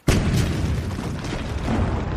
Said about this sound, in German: Diesmal feuerten alle drei Kanonen gleichzeitig.